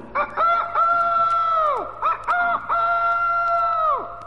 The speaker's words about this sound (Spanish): el gallo, cantando a pleno pulmón, dejó al bandido poco menos que sordo el cual salió huyendo despavorido a reunirse con los demás compinches de su banda.